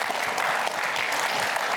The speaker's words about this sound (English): How about I, round of applause for these two, for those answers? Excellent.